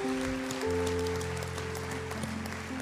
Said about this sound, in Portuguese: Aplaude a Deus, aplaude. Glória a Jesus, aleluia.